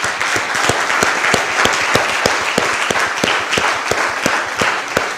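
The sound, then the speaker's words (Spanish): A church audience breaks into steady, sustained applause for God, many hands clapping in a dense, even wash with a few sharper claps standing out at a regular beat, with no talking. “Denle un aplauso a Dios, por favor, por eso.”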